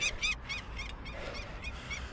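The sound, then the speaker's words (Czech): A female peregrine falcon calls repeatedly in a rapid series of harsh, high, scolding notes, about half a dozen in two seconds, loud over a low outdoor rumble, as a person climbs a 120-metre ladder to a nest box. “Přiletá i sameček, ten se obvykle drží ve větší vzdálenosti a neozývá se tak hlasitě jako samice, která letos opravdu doráží velmi intenzivně.”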